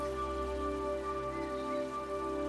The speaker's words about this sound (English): You're standing near the garden entrance at the bottom of a gently sloping hill covered in trees. Next to the entrance is a large waterfall. The flowing water sparkles in the sunlight.